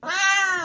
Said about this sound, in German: Das Schnorren der Katzen wurde immer lauter und auch die Box fing auf einmal an zu schnorren, obwohl sie es eigentlich gar nicht kann. Sie kann zwar miauen,